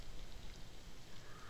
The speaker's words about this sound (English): It sounds like rain, but what you're hearing are black soldier fly larvae. The flies are being produced to make animal feed.